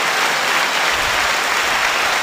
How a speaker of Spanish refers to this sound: No me acuerdo cuál era el botón de los aplausos, espérate. Era este.